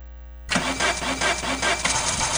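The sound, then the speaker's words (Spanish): A car engine cranks repeatedly, the starter grinding in a steady rhythmic churn for about two seconds without catching, loud, after a brief low hum. “¡Ay, el carro! ¿Necesitas reparar tu carro hoy mismo?”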